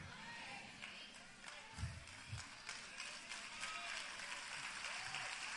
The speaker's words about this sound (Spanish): Pero no aplaudas tanto.